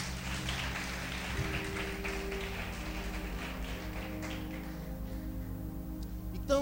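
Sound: audience applauding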